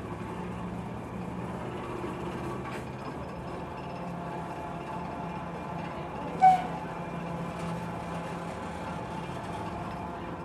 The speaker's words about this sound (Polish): Ten dziwny hałas, który słyszycie, to jest dźwięk praskiego metronomu.